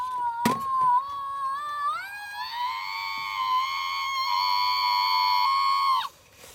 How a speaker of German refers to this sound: Wann haben Sie de den geschrien? Hier ist der Schrei, vielleicht besser zu hören.